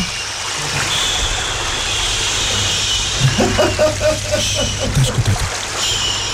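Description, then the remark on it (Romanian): Steady running water trickles throughout, a broad hiss with some bubbling, while a low engine-like rumble and brief muffled voices sit underneath toward the end. “Mai lăsăm apa? Mai las E cineva care încă n-a făcut pipi pe el în trafic?”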